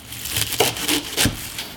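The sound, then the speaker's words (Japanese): A whole daikon radish being grated for a pork mizore (grated-daikon) hot pot, with a steady series of rough, wet scraping strokes repeating roughly every third of a second, moderately loud and with no voices. “今朝は大根を丸々一本使う豚みぞれ鍋のいい音”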